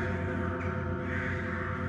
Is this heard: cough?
no